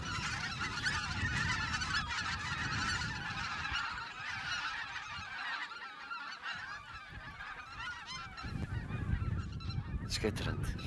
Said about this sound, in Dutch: Ja, wij dachten, wij gaan nooit een gansgeluid kunnen laten horen, want wij laten die beesten gerust. We gaan ze niet opjagen, omwille van zo'n, van zo'n Maar eh, ze vliegen zelf op, dus...